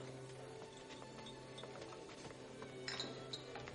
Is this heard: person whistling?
no